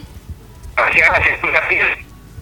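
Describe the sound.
The voice of senator Oscar Andrade comes through a phone call line during a radio interview, thin and narrowband with a muffled, slightly garbled quality from interference, lasting just over a second before cutting off.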